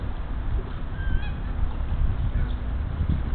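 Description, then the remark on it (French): A small brown duck gives a few brief nasal calls, fairly faint and spaced apart, over a steady low outdoor rumble of wind or water. No one speaks. “Non, c'est le petit canard marron qui fait ce cri là en fait.”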